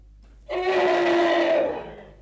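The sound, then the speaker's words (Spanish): A young elephant lets out one loud, brassy trumpet call lasting about a second and a half, holding a steady pitch before fading, with no other sounds around it. “Cuando el elefantito aprendió a trompetear,”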